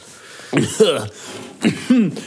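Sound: coughing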